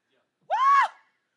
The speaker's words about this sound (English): Did a baby just scream back at me?